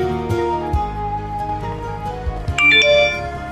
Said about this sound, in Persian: با شنیدن صدای پیغام موبایلش آواز خوندنش رو قطع کرد و گوشیش رو از جیب بغل پالتوی نخودی رنگش درآورد.